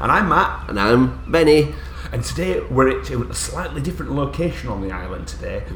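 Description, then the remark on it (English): Two men talk in a hard-walled storage shed where they have been stacking things away, their voices carrying a noticeable echoey reverb that smears each phrase, over a steady low background hum. “because, as you can see, it's a little bit echoey.”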